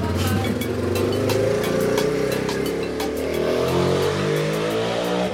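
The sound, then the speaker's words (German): Several motorcycle engines rumble and rev loudly and continuously at a motorcycle travel meet, their low throbbing tones rising and overlapping with sharp ticking bursts, like a crowd of bikes idling and revving together. “Ja, jetzt äh, sind wir am Ende und können euch ja noch so ein bisschen mal zum Schluss ein paar Sounds vom ja, Motorradreisetreffen einfach ankommen lassen.”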